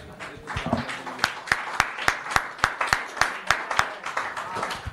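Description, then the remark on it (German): An audience at a church service applauds for Jesus, scattered clapping quickly settling into loud, steady rhythmic clapping in unison at a brisk even pace, with a murmur of voices mixed beneath the claps. “Und so gebt einmal Jesus einen Applaus.”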